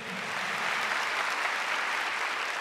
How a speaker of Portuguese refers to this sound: Quem passou dos 54? Eu estou quase chegando lá. Uma salva de palmas também.